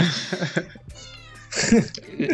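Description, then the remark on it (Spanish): A kitten meows insistently, a drawn-out, wavering cry flanked by shorter agitated yowls, clear, with some background voices around it. “E, está, está bastante conmocionado allá el gatito”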